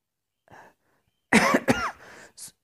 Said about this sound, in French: Euh, ça fait tousser, hein.